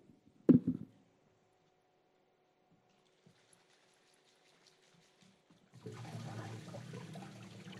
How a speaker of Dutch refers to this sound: Je kunt een vortex in deze fles maken. Je moet het water letterlijk gaan beroeren. En dan gebeurt er het volgende.